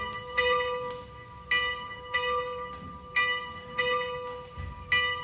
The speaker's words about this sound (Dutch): De kleine klokken geven hm, tonen. Nou, dan weet je ook wel. Misschien dat we ondertussen gelijk even kunnen luisteren naar die klokken.